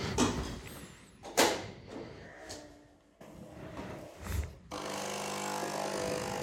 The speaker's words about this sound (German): Das typische Nespresso-Geräusch wieder.